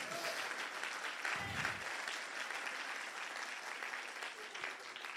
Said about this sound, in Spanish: ¿Le das un grito de qué? Dale un grito de júbilo a Dios. Dale un aplauso fuerte a Jesús, vamos.